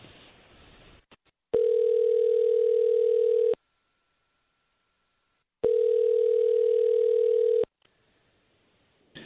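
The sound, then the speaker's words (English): An outgoing phone call to a man rings: two long, steady electronic ring tones, each about two seconds, separated by a silent pause. The tones are clear and loud, with no one talking. “So we're gonna call him.”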